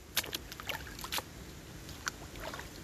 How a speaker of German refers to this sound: Oh, könntet ihr nur diese, diese, dieses beruhigende Wassergeplätscher hören? Warte. Wir machen das erstmal künstlich für euch. Und ja, es ist noch ein bisschen weiteres Wassergeplätscher.